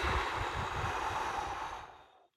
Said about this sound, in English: You're putting a lot of effort and intent in exhaling. Part of what you're exhaling visually should be your stress. Get it out of there. You're inhaling brand new, fresh oxygen. You're exhaling stress and negativity and those types of things.